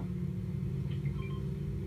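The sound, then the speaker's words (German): The engine of an IO car in a video game drones steadily, a loud low rumble with a slight rising strain as it accelerates, with no voices over it. “Hier ist ein IO-Auto. Wow, das gibt mehr Gas als andere Sachen, Alter.”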